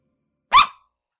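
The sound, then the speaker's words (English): A single short dog bark, sharp and fairly loud, with a harmonic, slightly yelping tone, standing alone against silence. “Good boy.”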